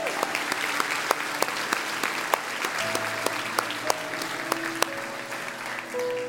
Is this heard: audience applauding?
yes